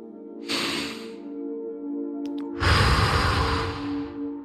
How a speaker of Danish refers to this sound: Træk vejret ned i maven tre gange. Ind gennem næsen og ud gennem munden. Få gerne noget lyd på, når du puster luften ud.